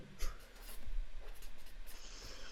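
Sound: pens writing on paper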